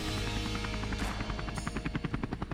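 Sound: helicopter sound effect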